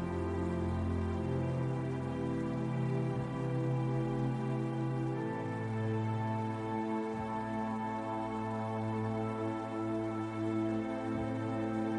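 A steady, continuous rush of cascading waterfall water, evenly loud throughout, blended with sustained low droning tones beneath it.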